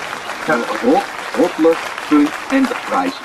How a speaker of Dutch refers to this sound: Ja, nee, daar hoort een applausje bij. Dus eh, bij deze... Eh, Please clap. Applausje ja.